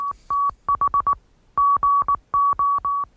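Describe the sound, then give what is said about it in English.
Steady mid-pitched Morse code beeps tapping out quick short dots and longer dashes in uneven groups, with brief pauses between letters, loud and clear with no voices. “had developed their own electric telegraph in 1832 and came up with a robust system of encoding the pulses into groups representing numbers and letters of the alphabet that we know as the Morse code.”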